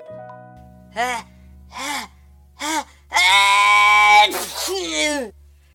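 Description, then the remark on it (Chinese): A voice imitates an elephant's big sneeze: three short, rising, breathy gasps build up, then a long, loud, strained blast with a hissy burst, trailing into a brief sigh. “大象打了一个好大的喷嚏，吹飞了所有甜甜圈。”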